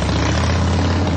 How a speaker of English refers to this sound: This is the sound of a popular American motorcycle. It's the sound of freedom, the open road, really good times.